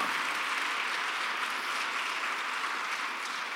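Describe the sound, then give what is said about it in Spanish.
A worship audience claps steadily and loudly for the Lord throughout, a dense, sustained wash of applause from many hands with no break and no voices standing out. “Dáselo bien fuerte al Señor.”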